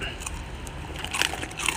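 A sharp crunch of teeth biting into a crisp senbei rice cracker, followed by a second crackly bite by another eater a moment later, with a faint low background rumble throughout.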